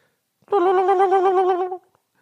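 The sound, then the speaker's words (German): A voice imitates the intercom buzzer at the downstairs front door with one sustained, nasal buzzing tone that wavers slightly. It lasts just over a second, is fairly loud, and nothing else plays. “ich mach mal die Geräusche für euch. Unten, unten an der Tür, die Gegensprechanlage ist so.”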